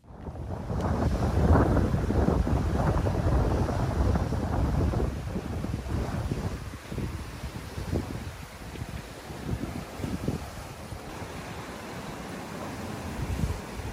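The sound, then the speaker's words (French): Strong wind buffets the microphone over the rush and slap of waves against a sailboat's hull during a sea crossing, with a young woman at the helm, loud throughout, with gusts easing slightly midway before building again. “vous n'avez pas l'image, mais vous l'entendez, Jade qui est à la barre, hein, comme une vraie marin”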